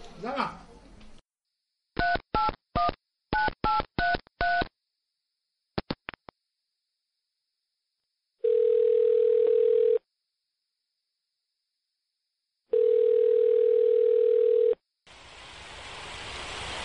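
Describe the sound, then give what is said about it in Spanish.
After a brief bit of talking, a quick run of telephone keypad beeps plays as a phone call is placed, then a few clicks and two long, steady ringing tones separated by silence, ending in a rush of line noise. “que los voy a llamar a ver si me cogen el teléfono, a ver qué me cuentan.”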